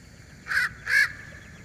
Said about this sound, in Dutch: Dat is niet voor niks, want ik heb het geluid van de raaf er maar even bijgezocht. Ik denk, het is toch leuk om, om te laten horen. Zeker. Het geluid van de raaf, dit is hem.